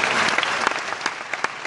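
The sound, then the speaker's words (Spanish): Loud applause from many hands at an event in the Bahamas, a dense steady wash of clapping with sharper individual claps popping out irregularly, filling the whole moment without any talk. “Un aplauso fuerte”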